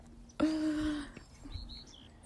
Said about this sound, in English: Do you hear that bird laughing?